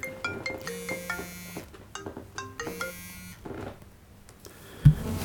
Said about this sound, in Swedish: Oh shit! Nu ringer det.